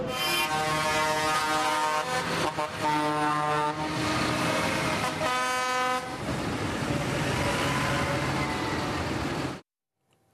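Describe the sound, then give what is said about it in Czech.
Tractors and farm machinery of protesting farmers honk loudly in traffic on the main road through Prague, Czech Republic, which they partly blocked in the early morning; several overlapping horn blasts in long sustained tones, then a steady engine rumble before the sound cuts off. No one speaks. “Traktory a další zemědělská technika v ulicích hlavního města.”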